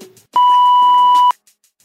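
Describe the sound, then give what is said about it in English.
A single steady electronic voicemail beep tone, loud, holding for about a second before cutting off cleanly, with faint background murmur before and after; it signals callers to leave their question. “All right, now go ahead and leave your question at the sound of the beep.”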